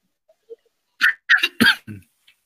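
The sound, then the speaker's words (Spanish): A short fit of coughing, four or five harsh bursts in quick succession, fairly loud, with no one talking. “Perdón, dilo tú, te traigo tos.”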